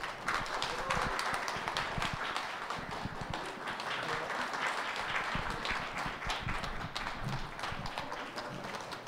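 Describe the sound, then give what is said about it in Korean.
Steady lecture audience applause welcoming the speaker fills the whole stretch, a dense crackle of many hands clapping at an even, sustained loudness without any talking. “박수로 맞아주시길.”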